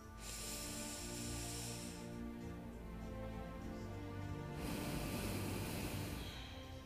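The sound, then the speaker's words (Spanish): A slow, deep breath drawn in, followed by a long, airy exhale, steady and unhurried with no talking. “Inhalo profundo y exhalo largo, profundo. Una vez más, inhalo.”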